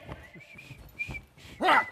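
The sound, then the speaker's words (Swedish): A person whistles a thin, steady high note that wavers faintly, then ends with a short, louder burst of sliding pitch that rises and falls. This is the whistling character Wojciech in the Swedish Radio Theatre's (Radioteatern) 2011 radio-drama version. No one speaks. “Karl ska få vissla tills han blir...”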